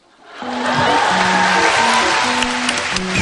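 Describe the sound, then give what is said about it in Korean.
An audience bursts into loud, steady applause after a brief moment of quiet, the dense clapping holding at full strength throughout, with a faint low melody running underneath. “예, 박수 쳐도 괜찮습니다.”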